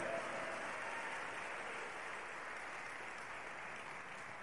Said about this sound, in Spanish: Démosle un fuerte aplauso a Él. Aleluya. Damos un fuerte aplauso al que vive.